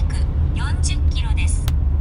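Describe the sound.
Steady, low rumble of a car driving, heard from inside the vehicle, continuous and unchanging throughout, with a person talking over the droning road and engine noise.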